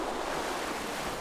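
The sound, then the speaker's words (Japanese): Gentle ocean waves wash steadily onto a beach on Iriomote Island, a soft continuous hiss of surf with no distinct breaks, heard alone without voices. “いやーなんかすごい素敵な波の音違いますねやっぱり普通の波の音とそうですかやっぱり思いますそうなんかこう優しいまろやかな音っていうか、はい、サラサラしている砂がそこにあるような、うん、今聞いていただいているのは西表島の波の音です”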